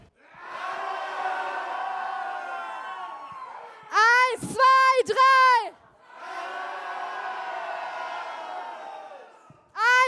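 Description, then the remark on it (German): A large crowd stands up together and lets out a loud, sustained group roar in imitation of a lion. A brief spoken count of one, two, three in German breaks it, then a second long roar rises up; voices imitate the animal. “Mal so brüllen wie der Löwe.”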